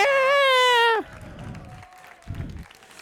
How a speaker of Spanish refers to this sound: Vale, el agua ha... Madre mía. Desaparecido. ¡Toma! ¡Fuerte aplauso!